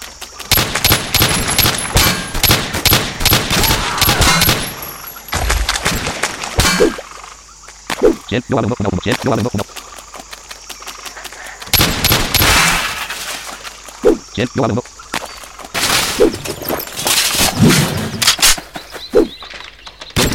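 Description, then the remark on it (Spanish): Rapid bursts of video game gunfire crackle in dense volleys, loud and close, pausing briefly before resuming with sharp repeated shots and occasional metallic pings, no voices. “Es decir, si tú sigues disparando y no te mueves, te van a dar.”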